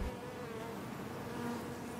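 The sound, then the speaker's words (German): A steady, dense hum of many honeybees buzzing together in California, continuous, with no talking over it. “Mit dem Bienensummen aus Kalifornien endet für heute unser Rückblick aus Wissenschaft und Technik.”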